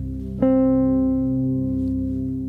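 A single guitar note is plucked and left to ring as a reference tone for checking a sung interval in a singing ear-training exercise, a steady sustained pitch with bright harmonics that slowly fades over a couple of seconds, with no talking.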